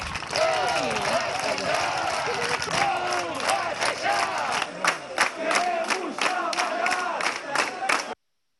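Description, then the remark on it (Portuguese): A large crowd of business owners and merchants protests in front of the courthouse and city hall, demanding suspension of the city's closure, shouting and chanting continuously, many overlapping voices rising and falling in loud bursts, with scattered claps and cheers mixed in throughout. “Empresários e comerciantes fizeram um protesto em frente ao fórum e à prefeitura, pedindo a suspensão do fechamento da cidade.”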